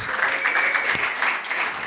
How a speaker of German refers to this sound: lass uns der Band mal einen fetten Applaus geben. Mega gut.